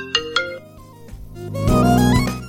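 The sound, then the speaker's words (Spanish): A short, bright electronic iPhone ringtone called "Apertura" (Opening) plays alone as a preview on the phone, opening with two quick chime-like notes and swelling into a fuller, rising synth phrase that fades near the end. “Ahora el siguiente es apertura. Apertura. Seleccionado.”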